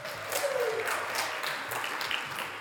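An audience applauds steadily for the contestant of a memory game, a dense, even wash of many hands clapping at once that holds at a fairly constant level for a few seconds, with a brief faint whoop early on.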